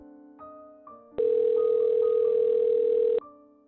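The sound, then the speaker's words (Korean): A phone ringback tone sounds once, a loud steady electronic beep lasting about two seconds, with faint low background tones before and after and no one talking; a call to the mother that goes unanswered. “너무 무서워 심장이 터질 것만 같은데 엄마는 전화를 받질 않았다.”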